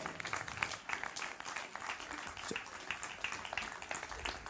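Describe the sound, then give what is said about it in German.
An audience applauds steadily for several seconds for an audience member called up to the front, a dense wash of many hands clapping at once with no single rhythm, fairly loud and unbroken throughout. “Bitte einen kleinen großen Applaus.”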